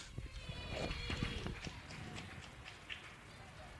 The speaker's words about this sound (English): So thank you, and listen to the applause.